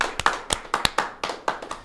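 A short round of applause for a guest: about a dozen sharp, crisp hand claps in a quick, uneven rhythm, fairly loud, with no voices over them.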